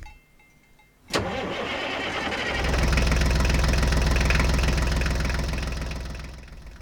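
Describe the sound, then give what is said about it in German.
A tractor engine, used for fertilizing fields, starts with a sharp click and brief cranking, then catches into a loud, steady low diesel rumble that runs on before easing off slightly at the end. “Ich muss halt eh noch ein bisschen die Felder düngen mit meinem Traktor.”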